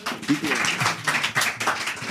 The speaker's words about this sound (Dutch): ik denk dat we gewoon eh, een hartelijk applaus moeten geven voor